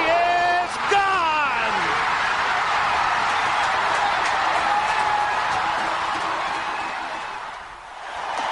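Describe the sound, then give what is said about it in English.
A huge stadium crowd roars continuously after Kirk Gibson's famous Dodgers home run, heard on the Dodger Radio broadcast. It is a dense, loud wall of cheering with a few rising whistle-like cries at the start, holding steady before dipping near the end. “He just let the crowd carry that moment for 20 or 30 seconds”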